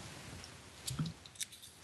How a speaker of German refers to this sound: Wenn du was zu trinken da hast, trink mal einen Schluck. Okay, ja, habe ich einen Moment. Mach mal. Schlückchen nur.